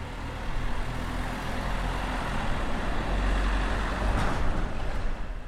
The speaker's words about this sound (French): C'est un paysage sonore particulier dans lequel on ne se rend même plus compte que le chant des oiseaux, aussi agréable et paisible soit-il, est rythmé par cette camionnette qui passe.